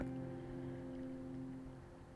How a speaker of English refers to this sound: enough to hear the sound of the water coursing by my window.